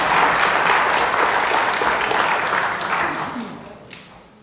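A round of applause from a group, dense overlapping clapping that stays steady for a few seconds, then gradually thins and fades out.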